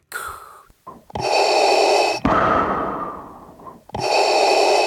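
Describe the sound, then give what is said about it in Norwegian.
A voice imitates Darth Vader's heavy mechanical respirator breathing: loud, raspy hissing breaths alternating inhale and exhale in a slow, steady rhythm, with no talking. “Altså Darth Vader?”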